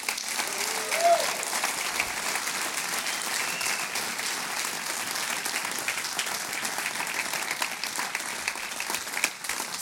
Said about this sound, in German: Sagen für Ihren Willen, für Ihre Bereitschaft, Sonntag für Sonntag herzustehen und wirklich Ihre Leidenschaft und Ihre Begeisterung zu teilen. Geben wir doch Ihnen mal einen ganz warmen Applaus